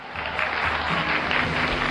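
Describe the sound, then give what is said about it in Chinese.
Steady audience applause fills the whole two seconds, a dense, even patter of many hands clapping at a fairly loud level, with no voices or other sounds over it, as two young pupil contestants are welcomed back to a quiz competition. “接下来，我们掌声有请两位小同学再次返回我们的比赛现场。”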